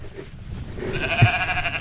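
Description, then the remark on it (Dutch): A sheep lets out one long, wavering bleat that starts partway through and holds to the end, clear over a soft outdoor background. “Zie, wildlife. De schapen.”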